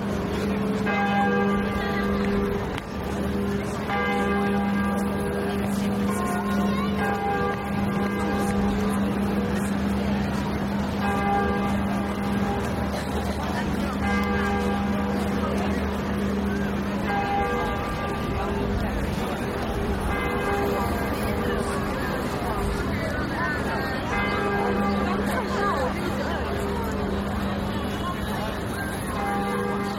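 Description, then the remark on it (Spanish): The large church bells of Notre Dame in Paris peal steadily and loudly at noon, their deep resonant tones overlapping in a continuous ringing over a faint background of city traffic. “Son las 12 del mediodía y así suenan las campanas de Notre Dame de París.”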